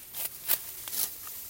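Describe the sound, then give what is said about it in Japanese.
A sickle slices through sedge stalks in a few short, crisp rasping strokes, irregularly spaced and fairly soft, with no one speaking; the stalks are held just above the cut and the blade is set low and pulled diagonally upward. “らのちょっと上を持って釜を下に当てて斜め上にちょっと引くっていうことですね”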